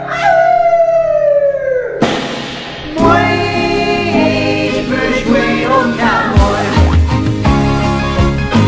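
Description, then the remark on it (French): In the evening, a person in a cell howls at the moon: a long, loud howl slides downward for about two seconds, then dense, sustained music swells in and carries on to the end. “Et le soir, dans ma cellule, à la lune, je hurle.”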